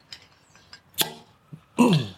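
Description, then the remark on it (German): A bottle of Mohren Spezial beer is pried open with a fork: faint metallic scrapes and clicks, then a sharp pop as the cap gives, followed by a brief fizzing rush. No one speaks. “So, das muss ich jetzt heute mal ein bisschen unkonventionell aufmachen mit einer Gabel, weil wir haben nämlich den Öffner vergessen.”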